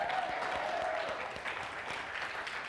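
A crowd claps steadily in a dense, sustained wash of applause, fairly close and moderately loud, with a faint tone briefly running underneath before the clapping continues evenly to the end.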